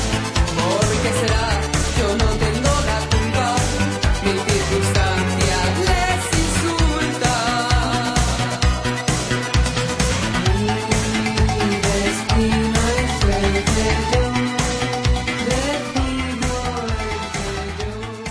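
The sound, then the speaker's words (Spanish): A 1980s Spanish pop song plays loud and steady from start to finish, with a driving drum beat, dense bright instrumentation and a melodic line riding on top. “décadas de los años 70 y 80, y una de las cuales es la que os mostramos hoy aquí.”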